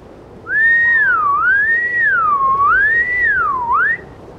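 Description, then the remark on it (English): A person whistles a continuous, rising and falling tone for about three and a half seconds, swooping up and down repeatedly in imitation of a killer whale call, clear against a faint background. “It can sound a lot like singing, very similar to dolphins to sound like a killer whale, you can whistle, like this.”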